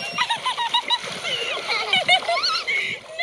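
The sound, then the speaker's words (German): Water from a large water pistol sprays and splashes continuously as a son repeatedly soaks his mother on a beach under a blue sky, with excited high-pitched voices shrieking and calling over the top throughout. “Der Sohn hält eine große Wasserpistole in den Händen und spritzt seine Mutter nass immer wieder.”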